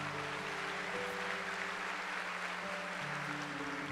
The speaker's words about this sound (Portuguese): Você pode dar uma salva de palmas para Jesus bem forte?